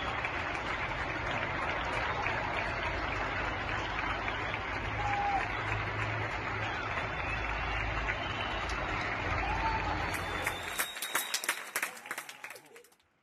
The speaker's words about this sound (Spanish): Y es verdaderamente em, emocionante, hasta el borde de las lágrimas, cada día a las 8 de la tarde, escuchar a la gente hacer palmas y vitorear en apoyo a los profesionales de la sanidad pública. Eso es estremecedor.